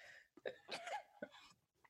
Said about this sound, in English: Was that a sneeze? Bless you. That was a sneeze.